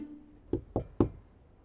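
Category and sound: household object, knocking on a door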